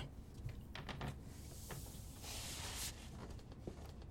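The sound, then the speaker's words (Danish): A door being opened and left slightly ajar, with a few sharp clicks and knocks followed by a soft sliding whoosh, against a quiet, noisy background with no talking. “Jeg lader døren stå åben lidt.”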